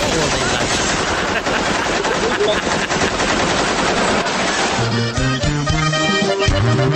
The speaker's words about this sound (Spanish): 500 balazos. Armas automáticas. Pecheras portaban. Y de cuerno las ráfagas. Los altos calibres tumbaban civiles.